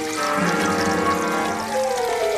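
Water from an overflowing toilet pours and gushes steadily, a loud, continuous rushing splash, spilling over the rim and running out onto the floor.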